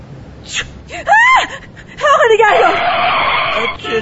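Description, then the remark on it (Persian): A quick, sharp sneeze bursts out, then a woman screams at it, a high, wavering scream that rises and falls, followed by a longer harsh, screeching stretch, all loud. “چی شد خانم حالتون خوبه بله خوبم چه جیغ زدین خانم برگام ریخ آخه عطسه کردی”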